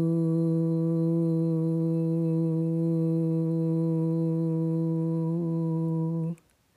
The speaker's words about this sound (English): So this the sound that's suggested for the dorsal state is called a voo, making the voo sound, and it sounds like this. Voo.